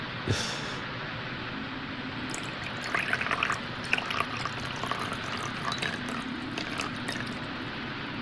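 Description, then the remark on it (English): A beverage pours steadily into a glass, a continuous gurgle and splash with bubbly, trickling detail that rises and shifts over several seconds, with no one talking. “but let's see if we can get a, a little pour sound for you without pouring all over the phone.”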